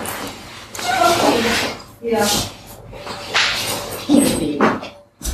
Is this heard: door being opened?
yes